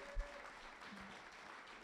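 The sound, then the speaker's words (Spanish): An audience claps steadily for the Lord, a dense, continuous wash of applause from many hands at moderate volume, with no voices standing out. “Le puede dar un aplauso al Señor.”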